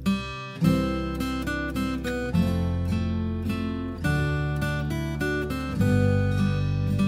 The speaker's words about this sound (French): Si ce thème fait très Noël, c'est aussi pour une bonne raison, puisqu'il s'est inspiré de la célèbre chanson We Wish You a Merry Christmas. Écoutez plutôt. Ça, c'est la chanson.